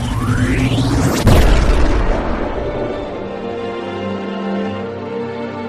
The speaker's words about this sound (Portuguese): É para aquecer o núcleo para fazer a maior explosão possível e levar o maior número de robôs aqui. O Zarud está com ela nisso. Sim. E tudo explode.